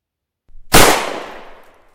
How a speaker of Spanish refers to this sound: Un disparo sacudió la cabeza del niño y la atravesó.